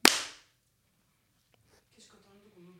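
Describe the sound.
A single sharp hand clap rings out at the start after a three-two-one countdown, a loud crisp smack that decays quickly, followed by near silence and then faint, quiet speech.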